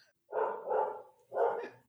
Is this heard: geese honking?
no